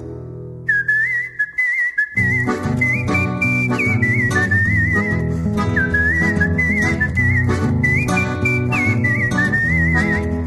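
A person whistles a lively, wavering melody, loud, with a band of instruments joining underneath after a couple of seconds and playing along until the end.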